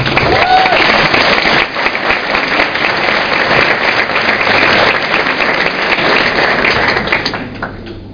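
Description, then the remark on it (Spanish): A crowd claps loudly and steadily, dense overlapping hand claps filling the whole stretch before tapering off slightly near the end, with a brief whoop early on. “Yo pido un fuerte aplauso para ellos.”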